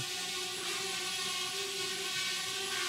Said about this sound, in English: Wow, you got the drone all the way in there. Careful!